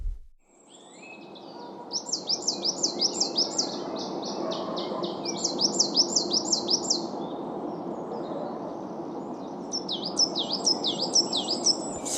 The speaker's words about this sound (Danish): det var øh, sortmejsen